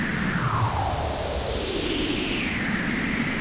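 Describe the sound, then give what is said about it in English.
Steady hiss of noise run through a resonant filter with the resonance turned up, its whistling peaks gliding smoothly downward in a long continuous sweep driven by a sweep oscillator, like a jet passing overhead; no voices. “And that rate of change sweep becomes more apparent when I turn the resonance up.”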